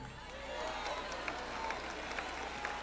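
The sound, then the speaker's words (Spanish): An audience applauds steadily, a dense wash of many hands clapping at once with a few sharper claps poking out, holding at an even, moderate level for the whole few seconds. “Ay, la primera vez que me aplauden cuando digo eso”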